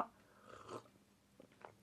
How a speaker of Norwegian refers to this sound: Nipper til en kopp med muled wine, den varianten av gløgg britene bruker.